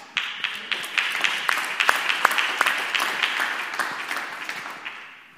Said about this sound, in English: wasn't clapping for myself right there. I was clapping because I was thinking about my business partner who has humble beginnings.